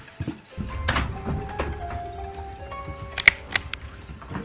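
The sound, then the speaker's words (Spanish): Crisp mechanical clicks and clacks of a gun being handled as a man aims it at two women in a kitchen, a few scattered sharp snaps followed by a quick cluster of louder metallic clicks over a low background rumble. “El sonido del arma y la mera energía de Barrera fueron suficientes para que las dos mujeres se giraran”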